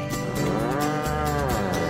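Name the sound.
cattle mooing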